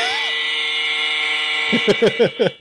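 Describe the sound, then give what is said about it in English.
A goal horn blares in one long, steady, brassy blast that holds its pitch throughout, while a voice breaks in near the end with a few short rhythmic bursts over it. “They're doing that sellout at the uh, at the sports store, so I bought a goal horn.”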